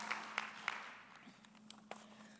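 Quiet applause from an audience clapping for volunteers, opening with a few sharper claps before thinning into scattered patters and fading out over a low steady hum.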